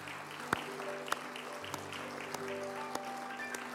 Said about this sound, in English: It's great that we got so much to thank God for. Let's do a worship clap, shall we? Just worship, praising God this morning.